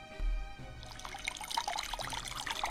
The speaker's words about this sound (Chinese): 这天啊，天空原本是蓝蓝的，可是不知道什么时候，竟然下起了雨来。